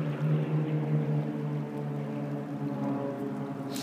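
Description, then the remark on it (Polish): A light sport airplane drones steadily overhead as rain begins to fall more heavily, its low, buzzing engine hum holding an even pitch with rich harmonics throughout, no voices present. “tak jak dwa lata temu, lata mi w tle sportowy samolot, kiedy zaczynałem, dokładnie tak samo, a, tylko że wtedy nie padało.”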